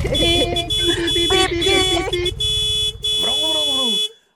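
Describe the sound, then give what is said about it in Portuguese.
In cold weather, a voice loudly imitates the horn of a man's arriving motorcycle honking, holding buzzy, nasal tones through several stuttering bursts before a final wavering note that slides downward and stops. “e buzinou.”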